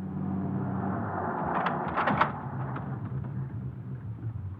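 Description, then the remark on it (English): A car pulls over and stops, its engine a low, steady rumble throughout, with a short burst of crunching tire noise midway. No voices are heard. “Will you quit arguing with me? Pull over.”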